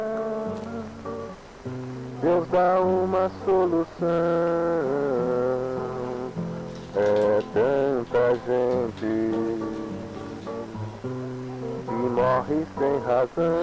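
A man sings a melodic line with held, wavering notes over a steady guitar accompaniment, the sound muffled and thin like an old recording, continuous for the whole stretch.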